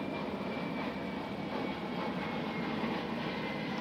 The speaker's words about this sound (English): There goes a plane